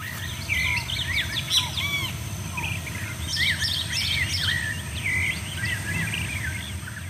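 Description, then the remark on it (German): Outdoor ambience at a botanical garden's butterfly center, filled with overlapping birdsong: bright, warbling chirps and trills from several birds over a steady low rumble and faint insect hum, with no one speaking. “immerhin also die Pflanzen und mit ihnen dann eben auch die Schmetterlingsbestände, die haben sich sehr schnell erholt. Und heute ah, okay. klingt es dort wieder so.”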